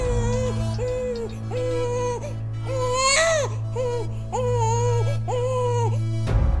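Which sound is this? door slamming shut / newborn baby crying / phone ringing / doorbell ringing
newborn baby crying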